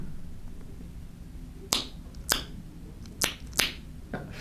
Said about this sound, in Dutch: de tongklik is een geluid dat je maakt door je tong vacuüm te trekken tegen je gehemelte en dan los te trekken.